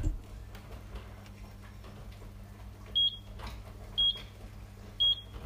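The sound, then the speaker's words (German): A kitchen timer gives three short, bright electronic beeps about a second apart, clear over a low background hum and faint kitchen clatter. “Ähm, und der Wecker, der piept jetzt.”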